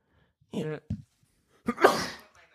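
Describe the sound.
A single loud sneeze: a short voiced intake and a catch of breath, then a sharp, explosive burst that trails off quickly into quiet.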